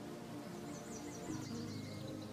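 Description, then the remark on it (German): Bees and insects buzzing softly among tulips in a colourful spring garden in a steady, continuous hum, with faint bird chirps twittering higher up in a quiet outdoor setting. “Insekten und Bienen freuen sich über den frühlingshaften Gruß genauso sehr wie wir. Überall summt und brummt es.”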